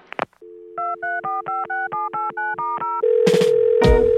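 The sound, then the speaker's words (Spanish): A telephone number is dialed: about ten quick, evenly spaced touch-tone beeps sound over a steady dial tone, followed by a louder, buzzier line tone. Clear, with no voices. “en el teléfono.”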